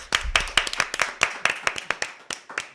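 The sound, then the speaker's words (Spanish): A small group applauds themselves in the studio, a steady run of sharp, bright hand claps at a quick, slightly uneven rhythm, fairly loud with no talking over it. “Oye, este aplauso se nota más que otros, ¿eh?”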